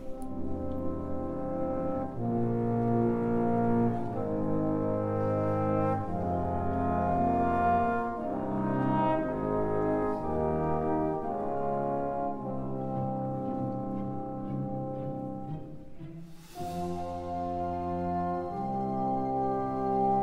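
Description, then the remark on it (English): Orchestral music from a Mahler symphony: broad, sustained chords that shift every couple of seconds, with deep brass-like tones in a slow, solemn progression. It plays loudly and steadily, with no one speaking. “But it's a perfect piece for that in the Mahler, too, because it does start serious.”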